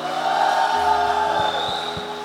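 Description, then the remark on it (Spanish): A church audience shouts and cheers for joy in a loud, sustained roar of many voices, with steady low thumps, like a drum beat, pulsing underneath during the second half. “Vamos a grito de júbilo.”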